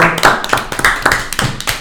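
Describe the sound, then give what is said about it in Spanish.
A short round of applause for a gentleman: quick, sharp hand claps in an uneven, overlapping rhythm, fairly loud and steady for a couple of seconds, with no voices over it. “Un aplauso para este caballero que prefirió”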